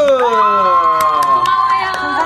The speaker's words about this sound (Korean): 네, 오늘도 감, 감사하고 끝까지 치- 청취해 주셔서 감사합니다. 아이고. 박수!